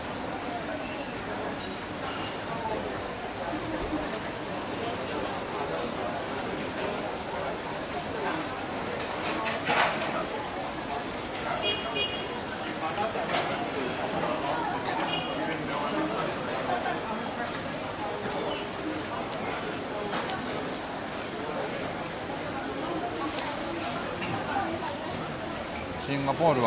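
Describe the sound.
Steady crowd chatter fills a busy hawker centre food court, a common people's eatery, on a sunny day, many overlapping voices with clinks and clatter of dishes, continuous and moderately loud throughout, with occasional bird calls in the background.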